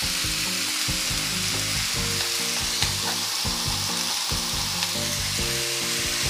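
Steady, loud sizzling of maitake mushrooms frying in a hot frying pan, pressed down by a pot set on top to brown them evenly. A continuous crackling hiss with small pops throughout and no voices.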